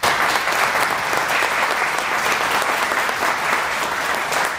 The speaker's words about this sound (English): Can we give these guys a round of applause for?